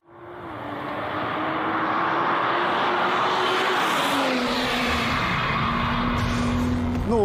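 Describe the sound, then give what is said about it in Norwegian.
The engine of a BMW M240i xDrive sports car roars steadily, its drone shifting pitch midway as if changing gear, with a brief rising whine at the end. No one speaks. “Nå har BMW lansert M240i X-Drive, og dette er en bil som har veldig mange av de samme egenskapene som den utrolig sportslige M2-en hadde.”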